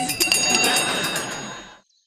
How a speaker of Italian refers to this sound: E, e suona la, la campanellona. La, la campana, e, e eh, poi qui.